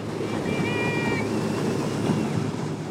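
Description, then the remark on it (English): Ocean waves wash and churn against a seawall in Kotzebue, Alaska, where kids launch themselves off the seawall into the ocean to swim. The surf makes a steady, loud roar, with a brief high-pitched cry rising faintly above it early on. “They launch themselves off a seawall into the ocean.”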